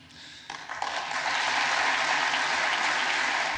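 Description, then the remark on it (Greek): Applause fills the US Congress chamber for the Prime Minister, led by Vice President Kamala Harris and House Speaker Nancy Pelosi, starting thinly and swelling within a second into loud, sustained clapping from a big crowd, with no voices heard over it. “Η αντιπρόεδρο Καμάλα Χάρα και η πρόεδρο τη Βουλή των Αντιπροσώπων, Νάνση Πελόζη, χειροκρότησαν θερμά πολλέ φορέ τον Πρωθυπουργό και έδιναν τον τόνο για να ακολουθήσει όλη η αίθουσα του Κογκρέσου.”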